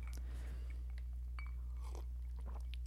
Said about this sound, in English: This is a bourbon whiskey blend that uses age soaked port barrels straight from Portugal to age the whiskey. So it's definitely on the sweet side. Mm. Let's go ahead and take a sip.